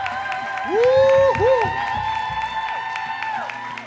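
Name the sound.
audience applause and cheering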